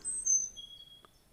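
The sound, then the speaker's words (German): Thin, high-pitched chirps and whistled songs of several birds ring out faintly over a quiet outdoor background in warm spring air with a light breeze, with a brief soft call near the end; no one is speaking. “Nur in der Ferne siehst du eine kleine Gruppe Spaziergänger und einige Vögel zwitschern ihr Lied.”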